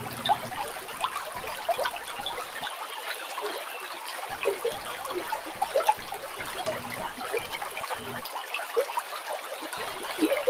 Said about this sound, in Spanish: disfrutando este sabor a medida que el sonido del río nos acompaña también.